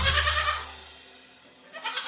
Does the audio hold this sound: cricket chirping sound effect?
no